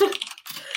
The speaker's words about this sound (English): we can cut out the typing sound.